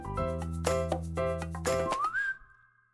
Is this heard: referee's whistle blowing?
yes